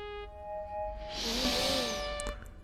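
One long, loud, raspy snore swells and fades, its breathy rush wavering up and down in pitch over a soft, steady musical background, with no talking.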